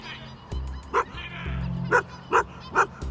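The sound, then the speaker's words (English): A dog running toward a person barks at them four times in short, sharp bursts at a steady pace, loud over a low rumbling background. “There's a dog running towards me. It's barking at me.”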